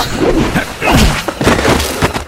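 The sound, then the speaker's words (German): Two bodies crash heavily to the floor after one is thrown into the other, a cluster of loud thuds and woody knocks over about two seconds, with no voices. “Ich konnte dem Schwung nichts entgegensetzen und knallte mit Marina zu Boden.”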